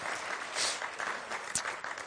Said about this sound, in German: Ja, viel Applaus nochmal an die Leute, die heute was beigetragen haben. Das kostet viel Mut.